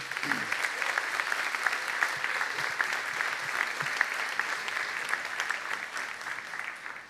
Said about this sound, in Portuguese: Amém? Se você crê nisso, aplauda ao Senhor.